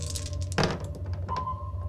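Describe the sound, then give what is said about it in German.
Three dice are rolled for an attempt to imitate a colour, landing in one brief clattering thunk that stands out from a low, steady background hum. “Mach mal, würfel mal drei Würfel auf Farbe imitieren.”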